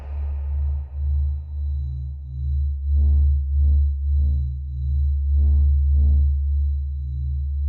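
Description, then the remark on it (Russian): A sonified recording of the Sun's 'voice', the radio interference heard from a radio antenna pointed at the Sun: a loud, deep electronic drone hums steadily, and after a few seconds a series of rhythmic, throbbing pulses rises over it, with no voices. “Хотите услышать голос Солнца?”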